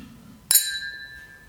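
A single bright clink of Feine Spirits tasting glasses touching at a spirits tasting, ringing out clearly with a sustained high tone that slowly fades, fairly loud against a quiet background.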